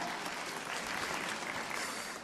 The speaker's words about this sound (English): So now it's over, right? Let's clap.